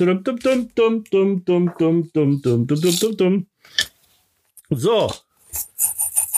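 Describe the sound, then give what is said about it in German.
A run of voiced, speech-like sounds gives way to papery rattling and bright glassy clinks as identically folded paper lots, each with a name on it, are shaken in a big glass jar for a draw, fairly loud. “Okay, die sind alle im Lostopf. Ich habe hier wieder mein großes Glas.”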